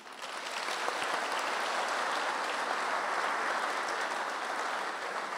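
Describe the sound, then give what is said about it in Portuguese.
An audience breaks into steady, dense applause, many hands clapping together at an even, sustained level for several seconds with no voices heard over it. “Você pode dar uma salva de palmas por isso?”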